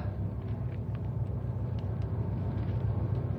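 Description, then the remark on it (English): A car engine rumbles steadily, a low continuous drone with no speech, as one car pulls up alongside Patrick's car, which has stopped up ahead. “Pull alongside Pat's car, pal.”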